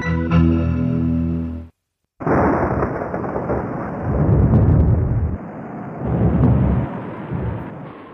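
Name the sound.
huge explosion sound effect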